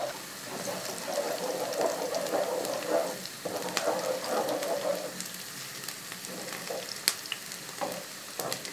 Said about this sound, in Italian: Io spero che attraverso questo suono riusciate a immaginare il profumo del soffritto di cipolla credetemi, mi sto deliziando